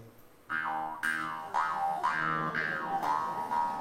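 A twanging instrument played against the mouth, using the teeth as a bridge and the mouth as a resonating chamber, plucked about twice a second in a steady buzzing drone, its tone swooping with vowel-like 'wah' shifts. Fairly loud, with no talking.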